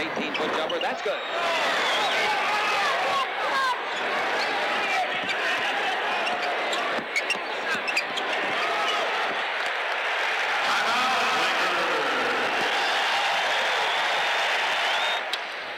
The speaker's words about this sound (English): Now we're at a Lakers game? Hell yeah.